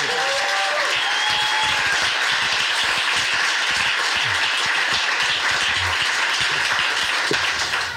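A crowd applauds steadily for the whole stretch, dense overlapping claps forming a loud, even roar of hand-clapping with no pause and no one speaking over it.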